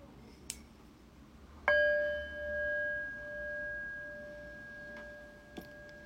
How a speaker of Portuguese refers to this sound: Então, quando eu convidar o sino a soar, procura não se mexer instantaneamente.